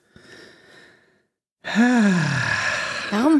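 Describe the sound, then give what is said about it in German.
A loud, heavy breath pushed out in a long noisy exhale that swoops down in pitch, followed by a brief quieter breathy stretch, with a spoken word before it. “warum schnaufst du eigentlich immer so?”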